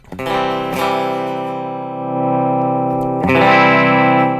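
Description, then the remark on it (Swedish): An electric guitar fitted with a treble bleed capacitor, its volume turned down but the treble kept bright, ringing out a few sustained, slightly overdriven chords, with a fresh strum near the start and another near the end. “Men med en bleed cap då, om jag har samma läge men vrider tillbaks tonen igen då, då så låter det...”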